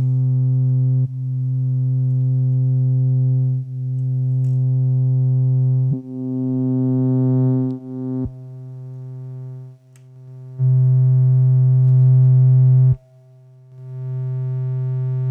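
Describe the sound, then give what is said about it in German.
A sustained, buzzy modular synthesizer drone with rich harmonics, its brightness shifting abruptly every second or two as the filter, modulated by the random value that also sets the tone's decay, jumps between settings, occasionally dipping in level with sharp clicks at the changes. “Und den Zufallswert, der das Abebben des Tons bestimmt, einfach mal benutzen, um den Filter zu modulieren.”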